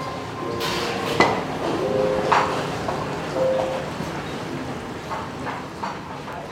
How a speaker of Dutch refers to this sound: nou het geluid dat de oven maakt? Dat liedje, ja. ik, ik, dacht even dat het in mijn, in mijn eh, koptelefoon zat. We hebben een open keuken, dus we hebben die uh, ovens ingesteld op vrolijke liedjes.